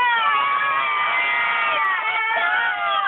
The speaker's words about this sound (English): but I got a truck full of kids that want to scream and make some noise because they're all Flames fans. Do it. Go ahead, Do boys. It. Make some noise. Yeah!